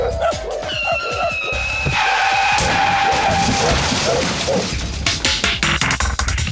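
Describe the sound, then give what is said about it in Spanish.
Tires squeal in a sustained high-pitched screech over loud rumbling noise, followed by a burst of sharp, clattering impacts like a car crashing. “Si a todo lo que hemos dicho le sumamos los accidentes automovilísticos y el ataque de perros, mi población se enfrenta a peligros severos.”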